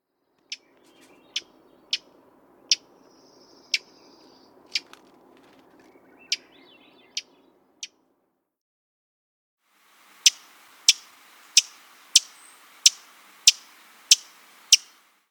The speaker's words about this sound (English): Our next sparrow, which was the fox sparrow, gives a smack call. Here are a few examples of this call.